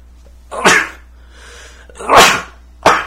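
Loud sneezes burst out in quick succession: one sharp sneeze, a brief breathy pause, then two more explosive sneezes, the last short and abrupt. No one speaks.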